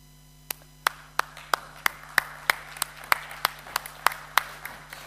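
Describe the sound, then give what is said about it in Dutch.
An audience claps for their heavenly God and Father in a steady, regular beat: about fourteen crisp, sharp claps in unison, with a low continuous hum underneath and no talking. “Wij mogen bijvoorbeeld voor onze hemelse God en Vader klappen.”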